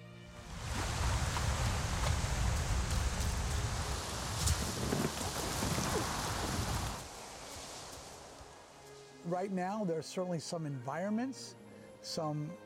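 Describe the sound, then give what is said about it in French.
Loud, steady rush of wind tossing through leafy trees by a beach in a digital simulation for several seconds, then dying away; a person begins speaking near the end. “La plage et les arbres aussi sont pris dans ce vent et se transforment.”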